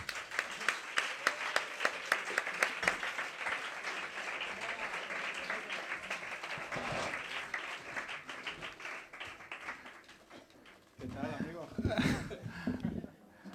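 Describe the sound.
An audience breaks into loud, sustained applause welcoming Álvaro, bassist of a band, a dense crackle of many hands clapping that gradually thins out, followed by a burst of voices and cheering near the end.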